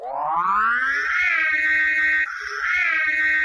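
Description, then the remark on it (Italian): The siren of the Ecto-1, the Ghostbusters car, wails loudly on its own, sweeping up in pitch and then holding a high, wavering tone, cutting out briefly before starting its rise again. “La sirena, la sirena ragazzi è inconfondibile!”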